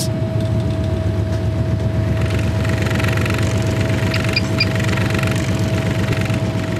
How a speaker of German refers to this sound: Das ist ein Tischorbitalschüttler. Und was der macht, ist relativ einfach erklärt. Das, ist ein, das heißt auf Englisch Shaker, also das schüttelt die Bakterien.